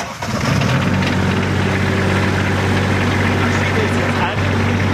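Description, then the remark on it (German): The engine of a water tanker vehicle carrying 2,000 litres of extra water starts up as it drives up, then is governed down, settling into a loud, steady low rumble with strong harmonic drone, running continuously for the whole stretch. “Wir haben hier 400 Liter Wasser drin, haben aber noch ein Fahrzeug mit, mit 2000 Liter Wasser extra. Und der fährt jetzt hoch.”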